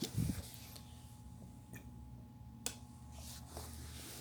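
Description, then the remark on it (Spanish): Someone takes a quiet sip of water, with a soft gulp and a few small mouth clicks spread over a few seconds of near-silence. “Paren que tomo un poco de agua.”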